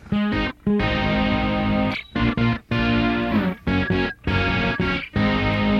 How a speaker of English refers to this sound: It's gotten a little bit more. It's gotten more extreme in that sense. It's a little more flanging.